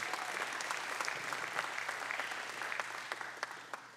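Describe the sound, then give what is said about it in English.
Steady applause from a church audience for a man after his testimony fills the whole stretch, a dense wash of clapping with sharper individual claps popping through, sustained and fairly even without any voices over it. “Come on, let's give him one more round of applause.”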